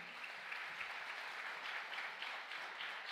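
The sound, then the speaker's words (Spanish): Sustained applause from a large crowd, a dense, steady wash of clapping that fills the whole stretch without pausing, with no voices standing out above it. “Cuando le otro aplauso fuerte.”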